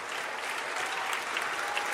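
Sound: audience applauding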